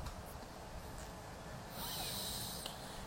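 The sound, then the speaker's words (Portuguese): Airy alternate-nostril breathing through the nose, a slow steady draw of air that turns into a louder, hissy nasal exhale in the second half, with no talking. “Fechem os olhos e continuem fazendo uma respiração alternada.”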